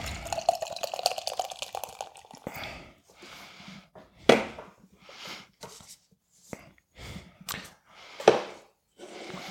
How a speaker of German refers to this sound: Auf dem Bild ist ein Spaghetti-Monster zu sehen. Das ist eine rosa Dose. Ich gieße mir freundlich, wie ich bin, als erster ein und gieße dir dann ein, damit du auch ein bisschen mehr Schaum kriegst.